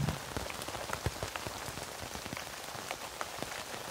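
Steady rain falls on a tent in a dense, hissing wash, with many sharp individual drops pattering irregularly across it throughout. No voices are heard.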